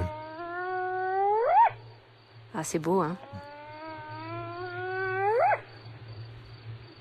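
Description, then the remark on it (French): Spotted hyena calls: two long, loud whooping cries, each starting low and sliding steadily upward to a high peak, with a short burst of someone talking between them over a low steady hum. “elle parle beaucoup elle communique beaucoup c'est un des carnivores qui communique le plus hein, je, crois qu'on a un son de hyène tachetée pour vous ah alors il faut le mettre on va le mettre on va écouter ah oui c'est exactement ça”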